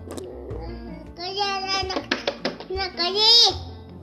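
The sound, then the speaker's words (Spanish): A baby babbles, a run of high-pitched coos and squealing syllables in short bursts that rise in energy toward the end, with no adult talking over it. “Si es un bebé, por favor, por favor.”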